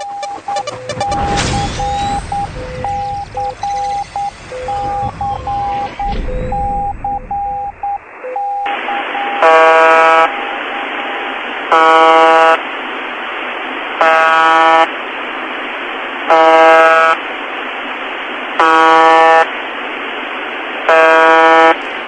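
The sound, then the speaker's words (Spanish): Shortwave radio static with wavering tones gives way to the buzzer of the VB76 numbers station, one of the first 'ghost' stations recorded: harsh, droning buzz pulses repeating about every two seconds, six of them, loud and evenly spaced, with no voices. “Y este es el primer sonido de una de las primeras emisoras fantasmas registradas en el mundo.”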